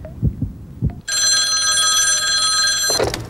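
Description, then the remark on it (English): A few dull, low thumps, then a loud telephone bell rings once in a single sustained burst lasting about two seconds before cutting off, as a host places a random call with a $10,000 question about who shot Alexander Hamilton. No one speaks. “All right, let's go to the phones and see who's out there.”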